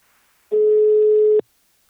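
A single steady electronic ringback tone of an outgoing phone call to the firm Invacare sounds for just under a second, a clear sustained pitch with a slight buzzy edge, loud, then cuts off abruptly into silence.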